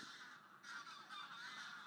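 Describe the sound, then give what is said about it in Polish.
Geese honking continuously in a dense, overlapping chorus, fairly loud, with raucous calls layered over one another and no talking. “To gęsi.”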